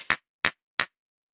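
Three sharp wooden knocks from two gavels held in one hand and struck together in a courtroom, evenly spaced about a third of a second apart, crisp with nothing else around them.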